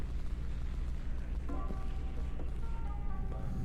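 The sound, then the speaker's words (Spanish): Firework rockets go off over a constant low rumble, with a few muffled bursts and faint whistling tones rising through the background. “Ya ves, han tirado cohetes y todo. Mira, tiran los cohetes.”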